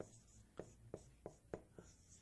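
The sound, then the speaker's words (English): Five or six sharp taps and scrapes of chalk or marker on a board come in a quick, uneven rhythm, fairly crisp over a quiet room hum, with no one speaking. “Let me take this down here.”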